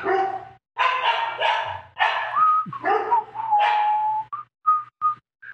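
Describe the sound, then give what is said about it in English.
A dog barks several times in quick succession, loud, then lets out a few short, high whining yips as the barking trails off. A low steady hum sits underneath. “My dog's going off.”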